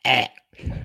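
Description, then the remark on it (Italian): A short, harsh, buzzy vocal burst, a voice mimicking a quiz-show wrong-answer buzzer, loud, followed by a brief pause and a low, rumbling murmur. “Quello era un suono di errore?”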